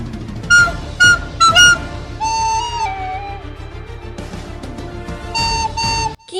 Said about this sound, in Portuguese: Toca nossa, a flautinha.